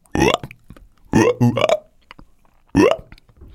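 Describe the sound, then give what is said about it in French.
A voice imitates a big green frog dragging itself across a wooden floor and croaking as if it had hiccups: three loud, gulping croaks with rising pitch, the middle one a quick double, separated by brief pauses, clear. “Tant et si bien que cinq minutes après, je n'ai plus devant moi qu'une grosse grenouille verte, avec plein de cheveux sur la tête, qui se traîne sur le parquet en criant comme si elle avait le hoquet.”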